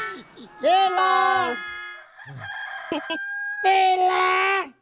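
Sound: rooster crowing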